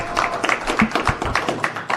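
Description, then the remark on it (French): An audience applauds, a steady patter of many hands clapping at once, fairly loud and sustained for the whole two seconds with no voices over it. “En tout cas, on est les applaudit.”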